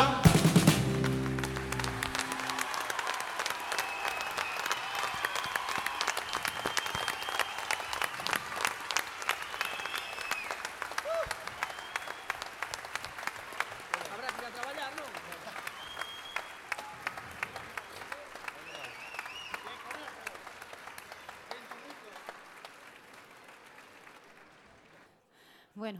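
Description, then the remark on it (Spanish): Sustained audience applause for the band after their performance, a dense crackle of many hands clapping that holds steady for most of the stretch, then gradually thins and fades out near the end. “Oh, oh, oh, y este aplauso es para ustedes de la burga ….”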